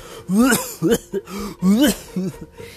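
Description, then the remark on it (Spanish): A person deliberately coughs and clears their throat several times in short, rough bursts, with a wet, phlegmy rasp. The sounds are fairly loud, with brief pauses between them. “Y cuando lo hacemos, pues a fin de cuentas, como somos líquido, podemos sentir o escuchar como esos líquidos más eh, pegajosos, pues están ahí espectorando, ¿no? Eh, cuando, cuando tosemos.”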